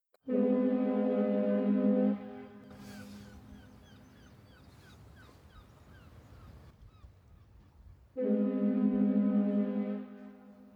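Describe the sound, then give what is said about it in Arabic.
A ship's horn gives two long, loud, steady blasts as the boat crosses the seas and oceans, one at the start and one near the end, with a stretch of quieter rushing background and faint chirping calls between them. “ركب الصديقان القارب وقطع البحار والمحيطات”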